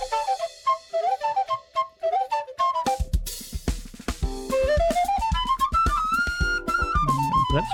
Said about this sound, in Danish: fløjte.